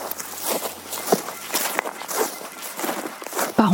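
Dry grass crunches underfoot in a steady walking rhythm, each step a crisp rustle, with a brief brighter scrape near the end, as a journalist walks along the dried-up Boutonne river, where there is dry grass in place of the water.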